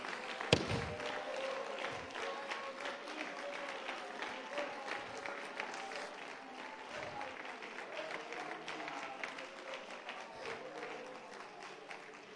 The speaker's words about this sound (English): I need the church right now to clap your hands and make a noise of praise to a holy God.